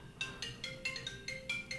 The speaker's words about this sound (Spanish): no sabía que era su teléfono el que estaba sonando.